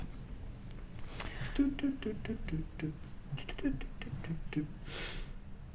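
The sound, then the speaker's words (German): A voice imitates the melody of a 2014 electronic track, humming and vocalizing a stepping melody in short, rhythmic bursts with clicky mouth sounds, moderately loud. “Ja, du hast die falsche Melodie gemacht.”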